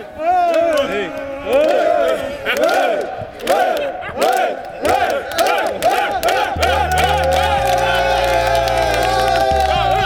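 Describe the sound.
A large stadium crowd at the Parc des Princes chants in loud, rhythmic unison, voices rising and falling together with shouts and cheers, then sustained horn-like tones join in under the roar.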